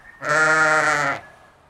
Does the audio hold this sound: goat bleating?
yes